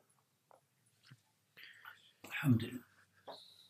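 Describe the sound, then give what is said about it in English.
Quiet mouth sounds of someone sipping water: a few soft slurps and breaths, then a fuller gulp in the middle, with no talking. “Um, I'll just have a si- I'll just have a sip of water.”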